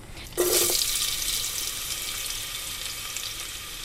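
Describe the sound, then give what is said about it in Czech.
Finely chopped onion hits hot oil in a pot with a sudden burst of sizzling, then settles into a steady crackling hiss of frying. No one speaks. “A cibuli vlastně dám eh, do hrnce na olej trochu spěnit.”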